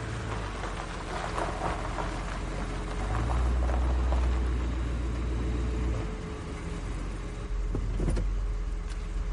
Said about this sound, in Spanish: En un motel de carretera. Un coche accede al aparcamiento.